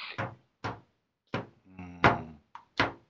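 Someone forcing a door to a room, trying to break it down: about six heavy bangs land at irregular intervals, with a short strained creak between two of the blows.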